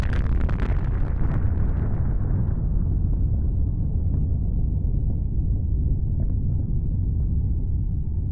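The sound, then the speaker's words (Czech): A huge explosion several kilometres away bursts out with a sharp, piercing crack, then rolls into a deep, heavy rumble that slowly fades over several seconds. No voices are heard. “ohromná bodavá exploze.”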